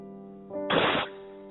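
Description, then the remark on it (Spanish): A short, crude homemade explosion sound effect: one harsh burst of noisy rumble lasting about a third of a second, moderately loud, over a steady low electrical hum. “Es una explosión ¿eh? para los que Exacto. están oyendo.”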